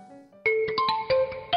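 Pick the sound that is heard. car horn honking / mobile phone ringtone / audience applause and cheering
mobile phone ringtone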